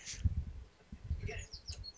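Faint, high bird chirps come in short scattered bursts over a low, rumbling background, with no clear speech.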